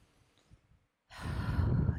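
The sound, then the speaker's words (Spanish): A quiet pause, then one deep, long inhalation during a guided breathing exercise, a loud rush of air that fills the second half of the moment with no talking. “Vamos a respirar juntas, juntos, juntes. Vamos a inhalar”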